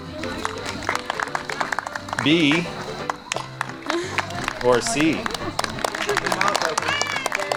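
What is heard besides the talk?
audience round of applause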